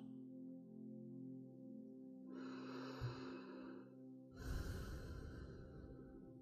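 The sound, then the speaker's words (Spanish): Two slow, airy breaths very close to the microphone, a soft inhale followed by a heavier, breathy exhale, with a faint low hum underneath and no talking. “Que sientas mi respiración muy cerquita de ti.”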